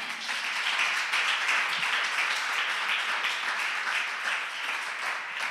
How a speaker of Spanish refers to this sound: ¿Cuántos se comprometen y le dan un fuerte aplauso al Señor? Amén.